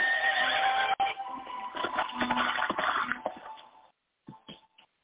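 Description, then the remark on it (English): A horse lets out a loud, shrill whinny lasting several seconds, followed by a short burst of hoofbeats that quickly fades as an outlaw rides the horse away into dark woods. “Within seconds, he threw Caty on his horse and disappeared into the dark woods.”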